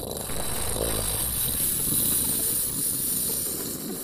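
A rocket blasting off: a steady, loud roar of rushing, hissing noise with a deep rumble underneath, sustained at full strength for about four seconds with no voices.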